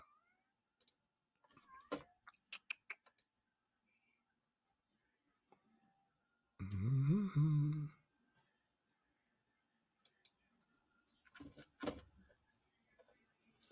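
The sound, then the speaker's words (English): A cat lets out a loud, drawn-out meow near the middle, surrounded by scattered clicks and small tapping noises, otherwise quiet. “I don't know if y'all can hear this cat in the background, but he's over there being ridiculous.”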